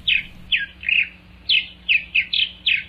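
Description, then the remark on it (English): Purple martin calls: about seven short, bright chirping notes in quick, slightly irregular succession, clear over a faint low hum, with no voices. “12,000 years ago, the lives of purple martins were very different than they are today.”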